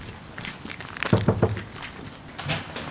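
Three firm knocks on a door in quick succession, sharp and low-pitched, followed by a quieter stretch with faint shuffling and a couple of soft thuds at the end.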